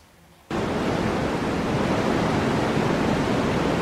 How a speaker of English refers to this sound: So white noise is where it's all frequencies up to the max.